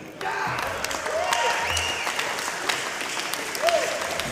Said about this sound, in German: Der Parteitag wurde da mit deutlichem Jubel von Teilen der Delegierten abgebrochen.